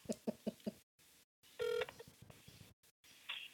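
Four quick, evenly spaced keypad beeps from a phone being dialed, then a short, brighter electronic tone and a faint higher chirp near the end. No voices are heard.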